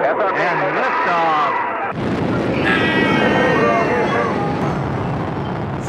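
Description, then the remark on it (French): A woman's strained, groaning voice suddenly gives way to a loud, forceful gush of vomiting, a roaring, rushing torrent that keeps going for several seconds, exaggerated. “Elle vomit tellement fort que ça propulse la boule de mort”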